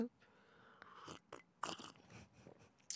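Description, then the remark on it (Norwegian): Wet slurping sips of coffee from a black cup, several short noisy bursts with small pauses between them, heard alone without any talking. “Jeg har en eh, sort kopp med noe satt i og kjent som kaffe.”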